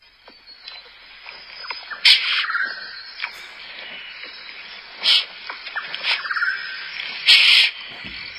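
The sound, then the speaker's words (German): Several shrill, squealing sloth calls ring out at irregular intervals, fairly loud, over a steady, dense hum of rainforest insects. No one speaks. “Es ist kein Vogel. Es ist kein Vogel. Ähm, es, es hat Fell. Es hat Fell. Faultier? Ja.”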